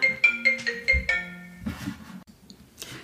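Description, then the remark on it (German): A smartphone ringtone plays a quick, bright melodic jingle of several pulsed tones, clear, going off during a recording, followed by a moment of rustling and soft background noise. “ja, wie kann es anders sein, dass in einer Upsi-Folge auch wirklich ein Upsi passiert? Absolut. Und dann noch mit dem Smartphone.”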